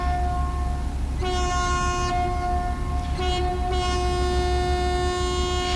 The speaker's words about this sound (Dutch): wordt altijd de horen gebruikt, de scheepshoren